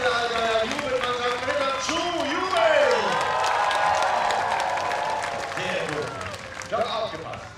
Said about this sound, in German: Wenn ein Ritter mutig und tapfer kämpft, belohnt ihn mit einem lauten Handgeklapper. In eurer Sprache Applaus, lasst hören euren Applaus.